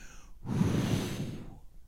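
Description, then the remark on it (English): A voice imitates the breath of God being blown out, a long, forceful, single steady whooshing exhale lasting about a second, fairly loud, with no talking. “This is the God of all gods, his character breathing into the reality of the situation. And the God of all gods goes,”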